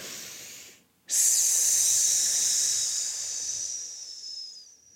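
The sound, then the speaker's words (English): A person makes a long, steady hissing exhale like a snake, a 'snake breath' breathing exercise done with a child to calm emotions, starting abruptly after a brief pause and tapering off over about four seconds, fairly loud with no talking. “Yeah, and um, I've I've learned a few ways to do it, and one of them is we do we do snake breaths.”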